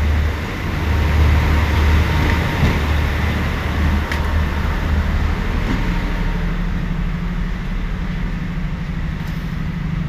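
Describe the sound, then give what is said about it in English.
Steady low rumble of the Larne Harbour passenger train, bound for Jordanstown, idling at platform four of a station: a continuous engine drone with faint clanks and hiss around it, loud throughout. “Platform four is my train ready to go to Jordanstown.”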